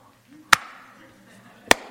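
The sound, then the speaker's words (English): Two sharp, loud claps from a worship audience clapping together on beats two and four, just over a second apart, with a faint low murmur in between. “Can we clap again?”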